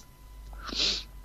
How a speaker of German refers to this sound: Oh, Gesundheit.